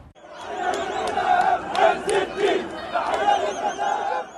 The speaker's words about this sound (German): Jubel und Freude auch im Westjordanland. Auf Schultern trägt eine Menschenmenge den 17-jährigen Palästinenser